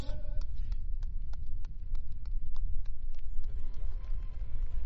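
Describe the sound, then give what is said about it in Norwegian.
An audience applauds for the sixth-place winner at a prize-giving: scattered sharp claps ring out over a dense, rumbling wash of crowd noise that holds steady throughout, with murmuring voices mixed in. “En stor applaus.”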